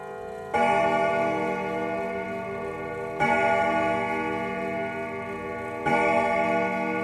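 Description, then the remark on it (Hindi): A clock sounds three resonant, ringing strikes spaced about two and a half seconds apart, marking twelve o'clock at night, each tone lingering and overlapping the next, loud with no voices. “रात को बारह बजने का घड़ी ने इशारा दिया”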